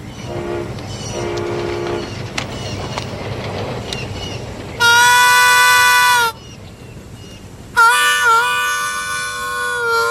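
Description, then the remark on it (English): A train rumbles steadily, with two loud, sustained horn blasts: one in the middle, then a longer one near the end. Fainter whistle-like tones come earlier over the low rolling noise. “Hey, look at that train over there.”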